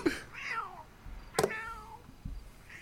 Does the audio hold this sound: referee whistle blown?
no